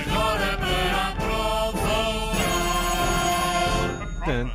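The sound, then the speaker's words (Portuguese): A loud telephone ringing, its bright tones repeating over several seconds amid a dense, musical backdrop, ending with a short swooping tone; no one speaks. “telefone”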